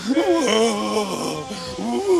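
A man wails loudly in long, wavering cries whose pitch rises and falls, with a brief pause before one last rising wail. No words are spoken.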